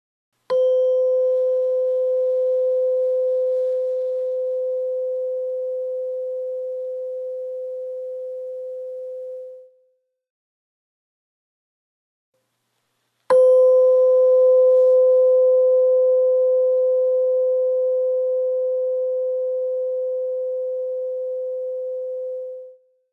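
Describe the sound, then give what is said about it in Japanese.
A tuning fork is struck twice with different force for comparison, each strike producing a sharp attack followed by a pure, steady ringing tone that sustains for about ten seconds, the second strike slightly louder than the first. “音差の叩く強さを変えて比較します”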